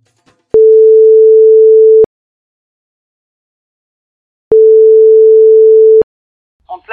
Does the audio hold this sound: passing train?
no